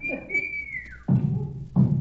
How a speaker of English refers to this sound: Uh, that whistle, you mean? Yes, it sounded as though it right here in this house. I think it came from the cellar.